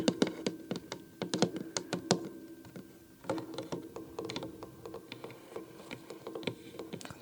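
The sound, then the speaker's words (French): Gentle fingertip tapping on a small wooden tea box full of tea bags, a quick irregular patter of soft knocks with a brief pause midway, then lighter, denser taps resembling light rain. No voices. “On va tapoter dessus tout doucement.”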